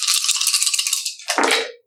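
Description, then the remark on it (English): Dice rattle rapidly in a cup for over a second, then clatter out onto a hard surface in a brief tumbling burst, a regular roll in a dice game, loud, with no voices. “Okay, just give me a regular roll.”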